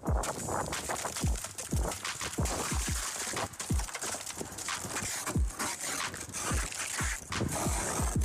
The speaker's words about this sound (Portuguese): E este é o som de alguém a tirar gelo do carro de manhã antes de ir trabalhar. Aconteceu esta semana.